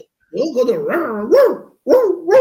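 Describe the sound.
A person imitates a dog barking, letting out a long, wavering, drawn-out yelp followed by a short pause and a second, shorter burst, imitating the bark Frances McDormand gave when accepting her Oscar.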